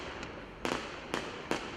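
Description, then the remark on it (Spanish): Several sharp fireworks bursts crackle against a steady hiss of background noise, with three louder pops spaced irregularly and a fainter one at the start. “ya comenzaron los fuegos artificiales.”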